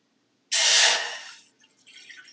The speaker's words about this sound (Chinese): 好，加水当然会有呲一声啊，这我们前面都会有经验的。